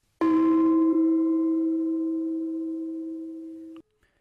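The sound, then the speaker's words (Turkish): A single bright electronic message notification chime rings out with a sharp onset, then holds a steady, slowly fading tone for about three and a half seconds before cutting off abruptly. No voices. “Günümüzde mesajlar duyduğumuz bu seslere benzer seslerle salisenin neredeyse yarısında sadece tek tıkla hedeflenen yere ulaştırılabiliyor.”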